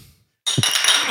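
Glasses of Belgian blonde beer clink together in a toast, one bright knock that rings on briefly after a moment of near silence, with no talking.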